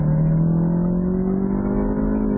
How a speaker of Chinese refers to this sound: 我现在在运动模式，我一收油的时候，它还会自动给我降档，听到后面排气管还有轰的一声，油门的反应还是没有宝马那么直接，动力它是有的，变速箱也很积极的去降档，引擎的声音是这三个车里头。给人印象最运动的